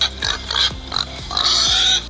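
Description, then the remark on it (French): A pig grunts and oinks in a quick, uneven series of loud snorts and squeals, with no one talking. “Parce que t'as adopté un cochon, je pense.”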